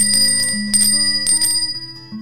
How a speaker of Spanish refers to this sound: Voy a sonar la campanilla para que avisar que ya es spoilers.